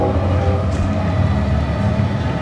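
A train loaded with many containers rumbles by behind the right field fence at a baseball game, a steady low roar with rhythmic clatter that holds constant throughout, no voices over it.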